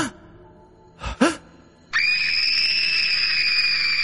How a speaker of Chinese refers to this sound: 一声尖叫，萧瑾感觉眼前一黑，昏了过去。